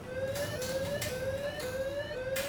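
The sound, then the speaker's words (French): An alarm wails in short rising whoops that repeat about twice a second, a steady electronic tone over faint background noise, sustained throughout with no voices. “Au même moment, une alarme retentit.”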